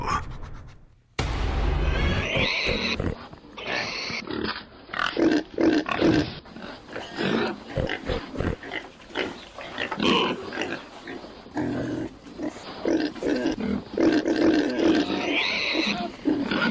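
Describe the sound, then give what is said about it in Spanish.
A pig grunts and squeals almost continuously, loud, with rough snorts breaking into shrill squeals in an irregular rhythm for the whole stretch, no one speaking, at San Francisco airport. “Bueno, ustedes me dirán este, qué tiene que ver un cerdo en, em, en esta historia sonora que se desarrolla en un aeropuerto, en el aeropuerto de San Francisco.”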